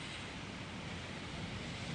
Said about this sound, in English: So I'm standing uh, about 10 metres from the actual foreshore and I'm looking at the waves, ko eke naru ki Papamoa Beach.